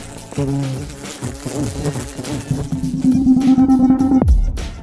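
Bees buzz loudly, their droning pitch wavering and swooping as they fly, then settling into a steady hum before cutting off abruptly with a low thud.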